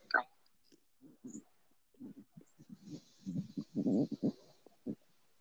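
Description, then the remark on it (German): Mouth sounds of someone chewing and swallowing food: irregular soft, wet bursts that grow denser and louder toward the end, with a sharp click at the start and no clear talking. “Ich habe es jetzt noch im Mund, aber noch nicht gekaut.”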